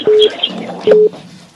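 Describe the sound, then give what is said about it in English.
Two short, steady electronic beeps from a phone line as a caller's call drops, sounding loud and evenly pitched with a brief pause between them over faint background noise. “Okay, uh, that one just dropped.”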